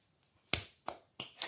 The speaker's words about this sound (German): Und diese Klatsch Klatschgeräusche nerven euch wahrscheinlich auch.